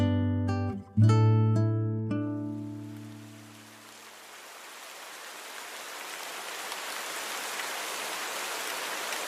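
A few sustained musical notes ring out and fade, giving way to the steady, soft hiss of light rain that gradually grows a little louder and continues to the end.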